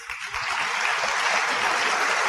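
A crowd claps steadily for a couple of seconds, a dense wash of many hands applauding at once, fairly loud and close, with no talking over it.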